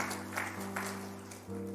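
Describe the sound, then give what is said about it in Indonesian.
An audience claps in a steady, dense wash of applause while a keyboard holds sustained chords underneath, the harmony shifting twice; no one speaks. “Mari berikan tepuk tangan.”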